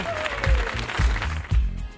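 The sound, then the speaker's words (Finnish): A short burst of scattered applause on the morning radio show Energin aamu, dense and fairly loud, lasting about two seconds, with low voices murmuring or cheering underneath and a faint high whistle-like tone early on. “Missä mun aplodit?”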